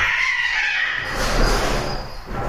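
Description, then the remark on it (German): Cats fighting, with a loud, strained yowl that breaks into harsh, hissy screeching, continuous for a couple of seconds with no talking. “Genau, die Katzen machen auch Action.”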